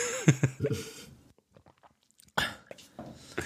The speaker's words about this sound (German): Hast du gerade getrunken? Ich habe gerade getrunken. Mischung, ja. Mischung leer. Das war ein leeres Glas, ja, habe ich nee, gehört. Das war jetzt tatsächlich lame ganz das Wasser, das ich trinken musste, weil meine Mische leer ist.